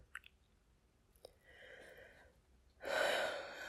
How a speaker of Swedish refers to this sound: Jag andas ut.